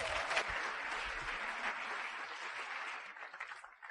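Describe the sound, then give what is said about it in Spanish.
Sustained audience applause for a team of people present, recognized as the double diamonds of Colombia: a dense wash of many hands clapping at steady loudness that thins slightly toward the end. No one speaks over it. “Y por eso yo quiero que todos ustedes me le den un aplauso a estas personas que están aquí, que son el equipo de ustedes.”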